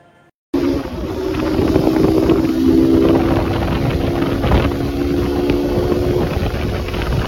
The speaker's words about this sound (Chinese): 然后这一块儿也会有一个我坐摩托车的这个记录的一个声音，大家可以听一下，感受一下速度与激情与年轻年轻男孩的快乐。